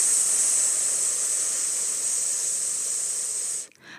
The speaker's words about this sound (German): Atmet auf einen langgezogenen S-Laut aus. Fürs Einatmen lasst einfach die Luft wieder einströmen und das Becken zurückkommen. Fürs Ausatmen lasst die Luft erneut auf ein langes S